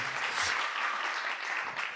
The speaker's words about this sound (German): Also wenn er nach der Predigt immer noch so klatscht, habe ich entweder zu soft gepredigt oder gar nicht gepredigt.